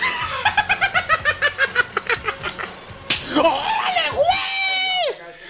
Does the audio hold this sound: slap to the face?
yes